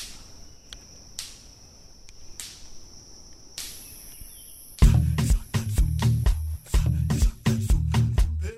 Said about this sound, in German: Und da, direkt dahinter befindet sich der Electric Fence, der elektrisch geladene Zaun. Und man hört es auch im Hintergrund. Der elektrisch geladene Zaun vom Nachbarn, er hatte irgendein Blatt abbekommen und knallt so fröhlich vor sich hin.